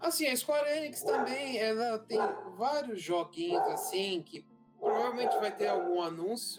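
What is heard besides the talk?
dog barking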